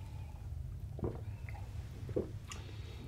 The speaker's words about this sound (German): Entschuldigung, ich muss mal Wasser trinken.